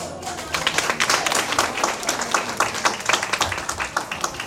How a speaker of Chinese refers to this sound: 愉悦的掌，愉悦的心情，热烈的掌声，迎接这堂课的开始。